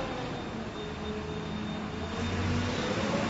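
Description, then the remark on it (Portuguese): A large truck rumbles past outside, a steady low-pitched engine drone with a faint whine that swells slightly louder toward the end; no one speaks. “Uh, deixa eu passar esse caminhão gigante aqui.”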